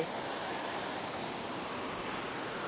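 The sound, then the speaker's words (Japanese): A steady, broad wash of surf noise fills the whole stretch, like ocean waves rolling onto a shore, with no clear individual crashes and no voices. “やっぱり海はいいな”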